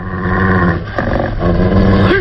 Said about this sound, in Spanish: Los lobos gruñen rabiosos tirando mordiscos que Solín esquiva ágilmente.